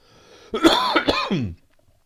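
A single loud cough from the speaker during a recording, with a throaty, rasping quality, lasting about a second before fading into quiet.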